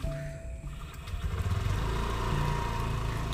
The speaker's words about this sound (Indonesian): oke okay, motor lagi